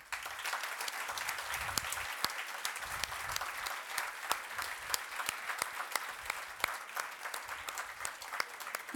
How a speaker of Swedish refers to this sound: Ge dem en varm applåd!